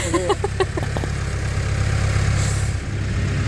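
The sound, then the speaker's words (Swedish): A tractor engine idles with a steady, heavy low rumble and rapid rhythmic chugging that continues unbroken from start to finish, with a brief higher-pitched sound near the beginning. “Jag ska bara vänta i traktorn”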